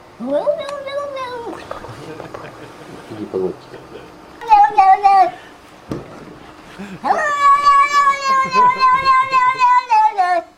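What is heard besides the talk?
cat meowing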